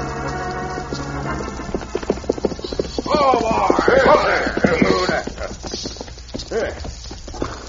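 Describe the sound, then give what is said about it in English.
Steady hoofbeats of horses on a fast ride clip-clop in a quick rhythm, with a horse's whinny rising in the middle. Voices speak over the hooves. “it's a mighty fast ride, Badger. This horse of mine's most winded.”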